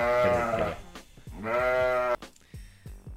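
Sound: sheep bleating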